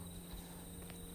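A faint, steady high-pitched trill of crickets and other insects drones on without a break, a nighttime insect chorus in late August over a low background hum, with no one speaking.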